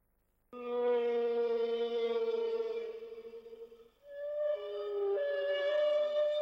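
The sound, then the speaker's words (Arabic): A long, loud whale call with rich tonal harmonics, holding a steady moan for a few seconds, then dipping and rising again into a second wavering cry, alone with no talk. “مخيف صوت الحوت فتصور انت بالميات وبتطلع بتشوف حوت هاجم عليك”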